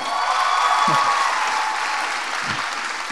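A crowd applauds steadily, a dense wash of many hands clapping at an even level throughout, with a couple of brief low thumps underneath.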